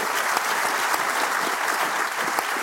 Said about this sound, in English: All right, look at these people. Yeah, round of applause for these people. They've been in it a while. Yeah, they're great.